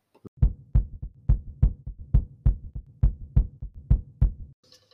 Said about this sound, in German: Ja, dann muss ich dir wieder meinen, meinen, äh, meinen Herzschlag zeigen. Show me Heartbeat.